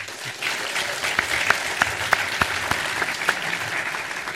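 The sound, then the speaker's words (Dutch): A group of people applauding steadily for about four seconds for an editorial team and crew, a dense wash of overlapping hand claps with a few sharper individual claps standing out, and no talking. “We gaan heel veel mensen noemen hoor, dus misschien niet iedere keer klappen, maar de redactie en de crew die verdient wel zeker een applausje, want die ondersteunen ons met meer dan alleen dit.”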